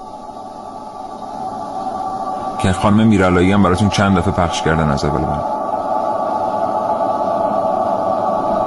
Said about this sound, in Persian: یه صدا فرستادن بعد گفتن این صدای فضاست من تا حالا فکر می‌کردم فضا صدا نداره من اینو پخش میکنم الان ببینید این صدای فضاست